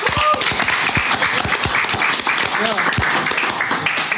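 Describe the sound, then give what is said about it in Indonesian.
A crowd applauds steadily at the end of a performance by a band, a dense, continuous wash of many hands clapping at full volume, with scattered voices and cheers mixed into the noise. “Coba tepuk tangan.”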